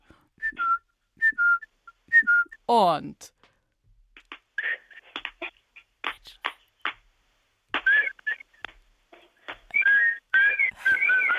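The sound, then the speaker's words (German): A voice whistles a cuckoo call, a few short two-note whistles repeated near the start, followed by a dense run of chirpy, twittering bird-like whistles and clicks that fills the rest. “da ist der Kuckuck noch dabei.”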